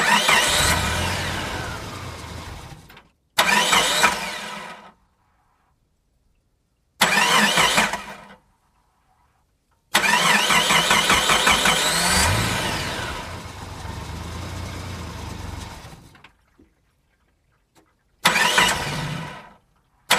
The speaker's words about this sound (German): Du siehst ja, der Motor springt nicht an.